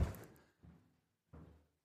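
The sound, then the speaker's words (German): A door opens with a heavy thump and rattle, followed by two duller knocking or shifting sounds a moment apart, with no one speaking. “So, es geht die Tür auf.”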